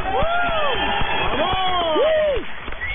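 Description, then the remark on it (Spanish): A crowd applauds one man and whistles at another, loudly, with several rising and falling whistles sweeping over a dense wash of clapping and murmuring voices throughout. “lo aplauden y a, Vive chifla”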